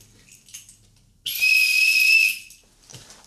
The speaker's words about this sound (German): war jetzt einfach eine leise Pfeife.